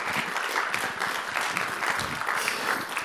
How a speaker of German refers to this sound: Gebe ihm doch einen rechten herzlichen Applaus.